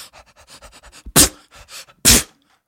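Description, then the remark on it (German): A person imitates a dog that sneezes when it is happy, with a quick run of rhythmic panting breaths followed by two loud, sharp sneezes spaced about a second apart. “der mein Hund, wenn er sich freut, der niest dann immer.”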